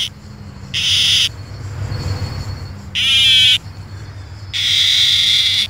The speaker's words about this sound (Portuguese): É apelidada de cigarra chorona. Por que será, né? Lembra o chorinho, né?